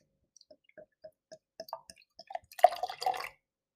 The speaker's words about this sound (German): Ich glaube, wir sollten mal besser zur Schaumkrone kommen das und jetzt mal das Bier einschenken. Korrekt. So, haben wir da ein Glas?